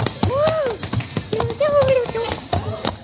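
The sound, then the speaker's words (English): A revolving door at a store entrance being pushed around by a person stepping into it, with drawn-out squeaks and creaks sliding up and down between a quick run of sharp taps and thumps. “Hey, how this door work, huh? Well, you just step into one of those little places and push.”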